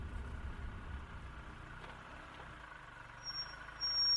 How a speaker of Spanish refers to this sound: Tragando saliva, el señor Ketcham acercó su vehículo al bordillo. Frenó, puso el punto muerto y esperó.